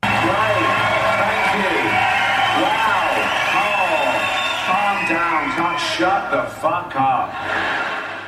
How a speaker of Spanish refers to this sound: O sea, tú entras al escenario, la gente te ovaciona, casi aplaude de pie, está feliz de verte y tú les dices que se calle en la boca.